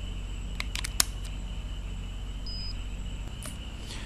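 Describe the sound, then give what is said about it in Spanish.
A few handling clicks and taps, then a brief, thin high-pitched electronic chime as a pair of electronic glasses powers on, over a steady low hum, with a faint buzzing vibration from the glasses in the background. “lo echo hacia atrás y se supone que me haga un sonidito y me diga que, se encendió.”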